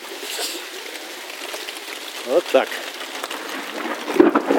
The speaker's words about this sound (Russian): Так, сейчас я выйду на улицу. Там так льет. Надо подставить туда какое-то ведерко, чтобы водичка дождевая набиралась.